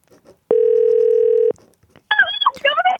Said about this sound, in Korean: 그래요. 한번 전화 한번 걸어볼게요. N인지 P인지.